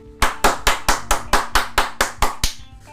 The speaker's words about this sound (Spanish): Quiero darle la bienvenida y que sea fuerte el aplauso, pero que sea más fuerte la ovación